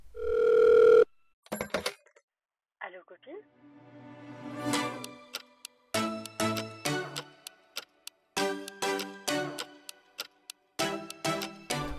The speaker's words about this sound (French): On n'a même pas lancé le jingle. Vas-y. Jingle.